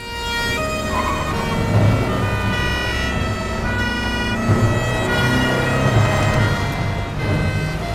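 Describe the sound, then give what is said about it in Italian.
Several police sirens wail together, overlapping and continuous throughout, with the steady rumble of vehicles moving underneath as a convoy of police cars passes, driving from the Agrigento area toward police headquarters in Palermo, Italy. “Il corteo di auto della Catturandi procede a sirene spiegate dall'Agrigentino verso la questura di Palermo.”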